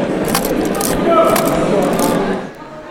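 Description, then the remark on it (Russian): The handle of a Felix arithmometer, a mechanical calculator adapted for blind users, is cranked after numbers are set, giving a steady run of clicks, ratchets and metallic scraping, fairly loud, with a faint murmur of voices in the background. “Набирались цифры и прокручивались ручкой.”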